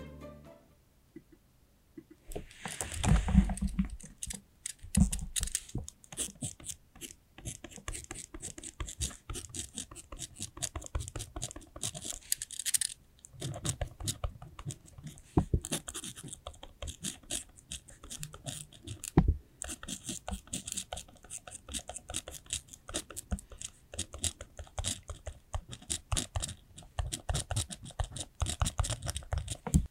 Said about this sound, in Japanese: というわけでちょっと文字を書いていきたいと思います。はい、で、も音がちっちゃいからさこれこそ本当に入るかちょっとわかんないんだけど、ねうん、今からちょっと音を出していきたいと思います。